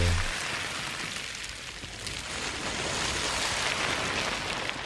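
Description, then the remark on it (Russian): A steady, hissing wash of rustling plastic waste collected from a beach, shifted and swirled so it imitates ocean surf or rain, continuous throughout, with no voices. “И, кстати, это не звуки океана, это звуки пластика, который команда Less Plastic собрала на одном пляже, чтобы мы с вами услышали, как может звучать океан для будущих поколений.”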